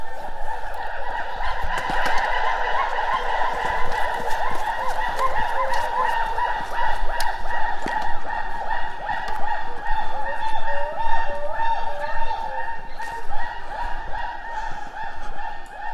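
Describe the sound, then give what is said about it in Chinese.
Gibbon calls fill the whole stretch, a dense, steady chorus of overlapping hooting and whooping cries in a mid-high pitch, some notes sliding up and down, with no one talking. “录到了长臂猿的声音。”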